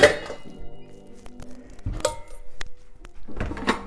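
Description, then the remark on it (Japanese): A metal cooking pot, used instead of a frying pan for making vegetable soup, is lifted out with a scrape and a clank, then set down with a couple of solid thunks, followed by faint kitchen clatter. “今日はじゃあこれこれはでも今日フライパンじゃないスープを作るので鍋”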